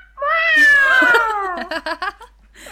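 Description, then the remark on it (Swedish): A person imitates a cat with a long, sliding meow that falls in pitch, followed by a quick run of short, rhythmic vocal yelps, mimicking the opening of a 1980s song. Loud, with no other talk. “och då har jag ju lite, om vi ska fortsätta på kattspåret då, så har vi ju den låten som börjar så här.”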